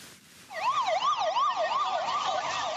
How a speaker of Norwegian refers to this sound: Sirenene uler fortsatt i Bagdads gater.